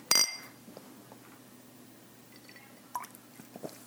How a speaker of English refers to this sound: We're gonna toast. Cheers.